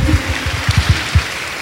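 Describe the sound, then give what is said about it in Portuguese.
An audience applauding the Lord, a dense wash of clapping with a steady rhythm of dull, muffled beats underneath, fairly loud and with no voices over it. “Você pode aplaudir assim, Senhor.”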